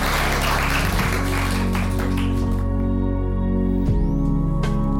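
An audience applauds three women who shared their experiences, clapping in a dense, steady burst that thins out after a few seconds, while sustained music with a deep bass hum plays underneath and carries on as the clapping fades.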